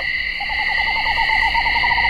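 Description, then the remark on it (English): A screech owl gives a rapid, even trill of soft whistled notes that runs steadily for nearly two seconds, set against a constant high buzz of insects in the night background. “I've got a screech owl.”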